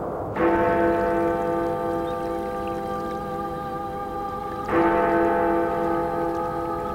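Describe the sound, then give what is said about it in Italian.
A church bell of Alleghe, in the Dolomite mountains, tolls twice, several seconds apart, each deep, resonant strike ringing out and humming on with a long sustain. No voices, only a faint hiss behind the bell. “È una leggenda, naturalmente, e infatti si sentono soltanto con le orecchie della fantasia quelle campane.”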